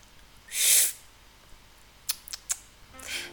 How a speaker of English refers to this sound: Let's find out, but not before first taking a sip of tea.